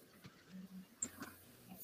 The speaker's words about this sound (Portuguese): Aí as intervenções do meu cachorro.